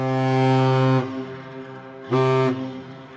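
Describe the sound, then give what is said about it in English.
Two loud, deep foghorn blasts from a ship, each a steady low drone rich in harmonics; the first lasts about a second, then a brief gap before a shorter second blast, with no talking. “There is another ship out there.”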